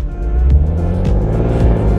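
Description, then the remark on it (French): A powerful Porsche V8 car engine revs loudly, a deep throaty rumble that surges and eases continuously, with no voices present. “Porsche vient d'ailleurs de déposer un brevet pour pouvoir équiper ses voitures électriques d'un pot d'échappement fictif reproduisant à l'identique le son de leur puissant moteur V8.”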